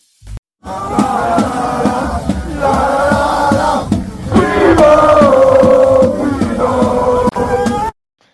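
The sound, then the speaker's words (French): A loud crowd of cycling fans, the CUP (collectif Ultrapido), chants in unison along the roads of the 20th stage of the 2023 Tour de France, between Belfort and Le Markstein, voices rising and falling in repeated phrases for several seconds, sustained and energetic with no single voice standing out. “Voilà un petit bout de ce qu'on risque d'entendre aujourd'hui le long des routes de cette 20e étape du Tour de France entre Belfort et, le Markstein.”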